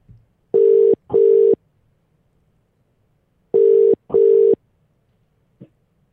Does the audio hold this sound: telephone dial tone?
yes